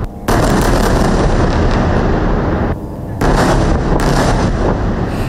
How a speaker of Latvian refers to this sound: Ap šī paziņojuma laiku skanot virknē spēcīgu sprādzienu pirms sākās intensīva Gazas joslas ziemeļdaļas bombardēšana, šķiet intensīvākā līdz šim.